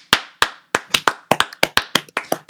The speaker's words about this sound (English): All right. Um well, guys, that's going to be a show. We're at time. Let's clap it out.